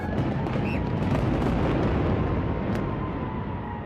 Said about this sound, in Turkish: Afrika'da yangın felaketi sonrası oturulamaz hale gelen gökdelenin yıkımı için 900 kilo patlayıcı kullanıldı. Dev toz bulutunun oluştuğu yıkıma halk büyük ilgi gösterdi. 31 katlı gökdelen kontrollü yıkımla saniyeler içinde yerle bir oldu.